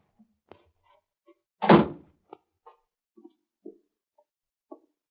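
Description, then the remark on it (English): A cellar door at the back of a house closes with one heavy thud, surrounded by a few faint, scattered knocks and creaks in otherwise quiet surroundings. “That's the cellar door.”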